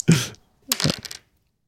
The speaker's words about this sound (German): okay, ich würfel.